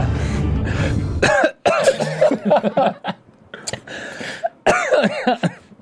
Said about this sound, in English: But and I started coughing. I started coughing. It's that time of the year.